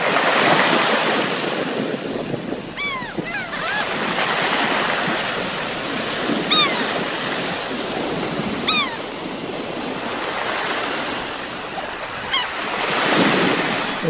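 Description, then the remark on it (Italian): Continuous surf washes onto a shore in broad rolling surges, with wind buffeting the microphone and a few bird calls cutting through now and then. No one speaks. “Ecco, questo già è, parliamo del mare.”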